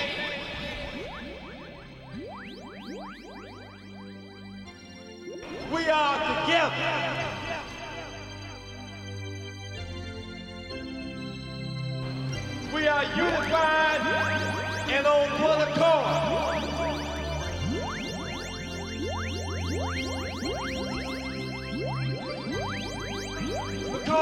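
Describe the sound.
A dance remix of a rock song plays steadily, with layered sustained chords and a bright, building texture, while a man's spoken voice speaks over the music.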